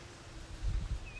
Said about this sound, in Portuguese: Tava ouvindo um barulho aqui esquisito, achei que era um passarinho, mas é a Kira se coçando.